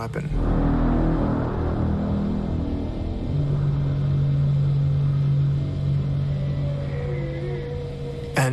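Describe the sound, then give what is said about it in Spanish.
Underwater sonar warming up before a sonar blast: a deep, continuous rumble carries a steady low hum through the middle, followed by faint rising and wavering tones near the end. “Pero luego encontramos lo que creímos que era la preparación del sonar.”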